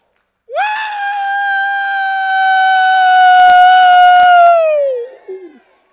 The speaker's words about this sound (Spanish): Eh, les voy a, quizás algunos enseñar lo que es un grito de júbilo. ¿Usted sabe lo que es un grito de júbilo? ¿Cómo se da?